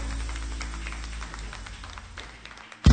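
A crowd claps together in worship, applauding God, in a steady, overlapping patter over a low background hum, the claps gradually thinning before a sudden loud thump at the very end.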